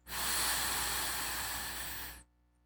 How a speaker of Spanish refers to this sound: Por lo pronto, quiero pedirte que inhales por la nariz durante 3 segundos. Primero hago yo el ejercicio y después te indicaré en qué momento lo repites tú. Inhalas por la nariz durante 3 segundos.